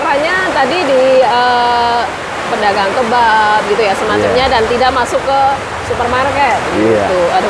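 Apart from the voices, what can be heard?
heavy rain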